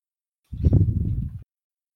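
A single breath blown right into a microphone, a muffled, rumbling whoosh lasting about a second, alone with no talking around it.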